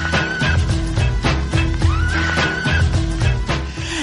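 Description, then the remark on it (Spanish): A radio intro jingle loop from a pack of radio intro loops plays loud: a dense, punchy beat under bright sustained tones, with a sliding, whinny-like synth line rising partway through. No one speaks. “Vaya, vaya, vaya, vaya, vaya loops más guapos eh, que tenemos. Es que tenemos un pack de, loops, intros para radio y los estamos poniendo así, practicando un poquito para, darle un poquito de un no sé, un toque un poquito más profesional”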